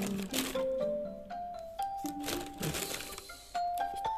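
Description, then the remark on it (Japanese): A package of Tieguanyin tea from the Lin Mao Sen tea shop is opened with a run of sharp, crinkly plastic crackles and rustles. Through the crackling runs a steady, wavering tone, like someone softly humming. “そしてもう一つが鉄観音ですね鉄観音がいいかな鉄観音を開けかな”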